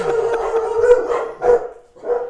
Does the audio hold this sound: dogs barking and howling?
yes